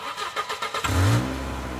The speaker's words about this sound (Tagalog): At nang pihiting ko ang susian ng kotse, agad na umandar ang makina nito.